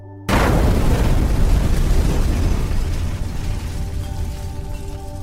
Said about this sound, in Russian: По пути в одной комнате я включил газ, а в другой разжег камин. — когда я с мамой на руках ушел из дома ученого достаточно далеко, за спиной раздался оглушительный взрыв.